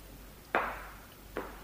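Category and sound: sound effect, footsteps approaching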